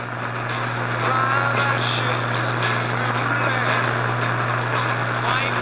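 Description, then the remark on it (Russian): A loud, unbroken droning hum of Soviet radio jamming of a Western broadcast, interference sent by special antennas, mixed with harsh hiss and warble. It stays steady throughout, and the broadcast voice is only faintly discernible underneath. “Вместо голоса было слышно лишь гудение.”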